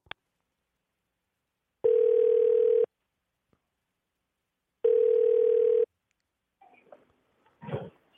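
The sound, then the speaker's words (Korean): Two long, steady ringback tones, each about a second long with a pause between, sound loudly as a host's phone call to a listener connects. A brief click comes first, and faint rustling and murmurs follow at the end. “끝번호 2451 전화 연결해 주세요”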